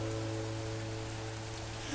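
Steady rain hisses in a continuous wash with no breaks, joined by a low sustained hum or tone underneath.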